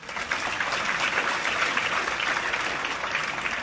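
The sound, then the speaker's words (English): A church audience claps in worship, a steady, dense, continuous wash of loud applause sustained throughout, with no voices standing out. “The reason why we are clapping our hands, the reason why we are shouting, we raise up our hands is because of our act of worship to the Lord.”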